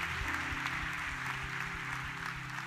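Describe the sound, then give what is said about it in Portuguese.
An audience at a church service claps steadily and densely in praise for the whole stretch, a continuous wash of applause from many hands, with sustained low keyboard-like tones humming beneath it. “Vamos aplaudi-lo bem forte.”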